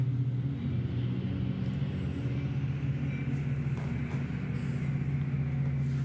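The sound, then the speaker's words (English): A heavy, steady low rumble with a droning engine tone, like a train rolling past, holding its loudness throughout with no voices. “And that train.”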